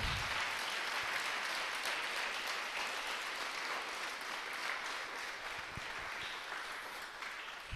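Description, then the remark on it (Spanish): Steady, sustained applause, a dense crackle of many hands clapping at even loudness throughout, with no voices standing out, sent as a warm applause of blessing to pastors, friends and ministers of God in different countries. “Que Dios los bendiga y les mandamos este caluroso aplauso de bendición.”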